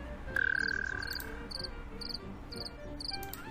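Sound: cricket chirping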